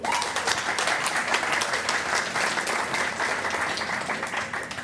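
A crowd applauds a columnist before she reads her column, a steady, dense, even wash of many hands clapping that holds at a fairly loud level for about five seconds, with a few faint voices mixed in.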